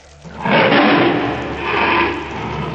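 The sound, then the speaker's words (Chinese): A white tiger's deep, angry roar swells in loudly, eases for a moment, then surges again in a second rumbling, growling wave that carries to the end. “满含怒意的吼声震得洛尘耳膜生疼啊！”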